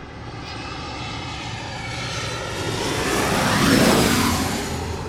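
A jet airplane roars overhead at Gravelly Point near Washington, its broad engine noise swelling steadily to a loud peak near the end with a sweeping whine, then starting to fade. No one speaks.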